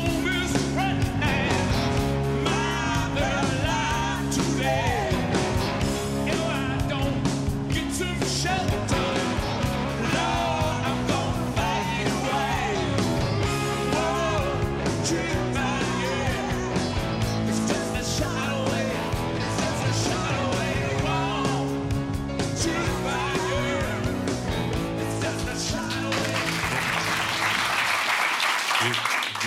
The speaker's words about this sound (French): à peu près n'importe quelle vidéo des …. Allez, on vous en envoie une.